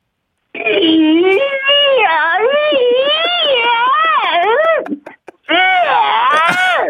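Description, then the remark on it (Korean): A person vocally imitates tires squealing on the floor of an underground parking garage before parking: a loud, sustained, wavering high-pitched squeal with rising and falling pitch, a brief break, then another squeal burst. “자, 다음은 이제 그 지하철장에 주차하기 전에 예. 바닥에 타이어가 비벼지는 소리가 음, 그, 그렇죠, 그렇죠.”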